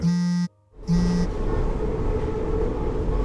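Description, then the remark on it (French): Steady low rumble of a metro train in motion, with a sustained tonal hum that cuts out briefly near the start before the rolling noise returns, continuous, with no voices. “Je reviens au réel. Le bruit du métro, les silhouettes autour de moi.”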